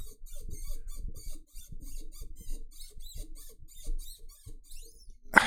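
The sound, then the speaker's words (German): A microphone stand squeaks over and over, a run of shrill, irregular creaks and chirps with low rubbing thumps beneath, ending in a sharp knock. Nobody speaks. “das ist ja hart, wie der quietscht”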